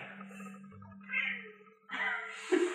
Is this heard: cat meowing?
yes